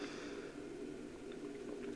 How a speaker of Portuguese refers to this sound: Olha, eu pegando o copo da criança para tomar água aqui no YouTube